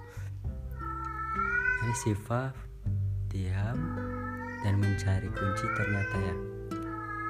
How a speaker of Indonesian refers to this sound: itu suara kucingku ya jangan terganggu